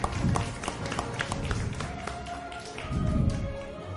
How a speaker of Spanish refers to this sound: Todos nos dijeron, pero él ganó. lo dijo primero. Sí, Aplauso.